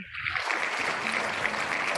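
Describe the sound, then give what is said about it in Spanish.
Sustained applause from a crowd, a dense steady crackle of many hands clapping at once, fairly loud and continuous throughout with no clear gaps. “Hay aplauso, hay de todo.”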